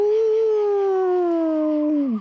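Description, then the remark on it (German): A human voice playing a wolf imitates a wolf howl, one sustained, loud tone that slowly glides downward over about two seconds before dropping off abruptly at the end. “Es ist zum Heulen. Au!”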